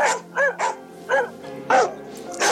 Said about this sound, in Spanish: Afuera de las casas, los perros lanzaban ladridos y aullidos que enloquecían a los que los escuchaban.